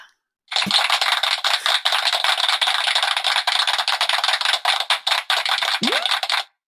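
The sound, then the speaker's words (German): A canned applause effect plays from a sound gadget in an office: a steady, dense burst of crowd clapping lasting about six seconds, loud and even throughout, then cutting off abruptly, with no voices over it. “Soll ich mal so einen Klatscher einfügen?”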